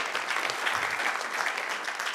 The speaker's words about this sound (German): Genau, jetzt können ihr Applaus geben.